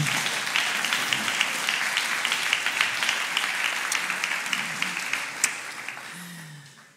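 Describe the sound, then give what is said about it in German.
An audience applauds a guest's family steadily, a dense wash of many hands clapping at an even level before tapering off near the end, with a brief faint voice slipping in as it fades. “Ich glaube, wir geben deiner Familie mal einen herzlichen Applaus, gell?”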